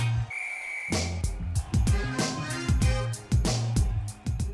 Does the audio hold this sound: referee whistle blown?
yes